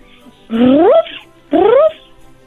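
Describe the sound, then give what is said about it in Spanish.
A child's voice imitates a dog barking with two drawn-out, rising yelps, each about half a second long and separated by a short pause, fairly loud. “Y la otra, me gustaría que hagas el ruido de un perro.”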